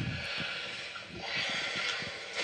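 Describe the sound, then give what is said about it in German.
Heavy, rushing breathing of a woman asleep, recorded the previous night and played back from a noisy recording, with a steady hiss throughout and one slow swell of breath partway through as she turns over. “Das ist dein Atmen.”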